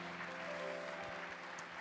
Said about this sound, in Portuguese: dê um brado ao Senhor e aplaudo aqui, adoro. Oh!